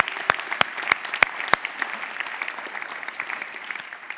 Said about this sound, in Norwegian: Så jeg har lyst til at vi skal klappe for dere for den jobben dere gjør i denne tida.